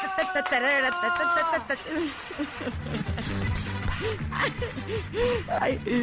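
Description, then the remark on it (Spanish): A short, bright radio-show fanfare of sustained, wavering horn-like tones plays loudly for a moment, then breaks off into excited voices and a cheerful shout that carry through to the end. “son horribles las fanfarrias, voy a aceptar, pero me encantan.”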